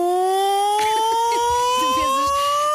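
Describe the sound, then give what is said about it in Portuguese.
A loud secondary school bell siren, marking the start or end of class, drones on as a steady, slowly rising electronic tone throughout, with faint murmuring voices underneath partway through. “Isso é uma, isso é, isso é uma sirene.”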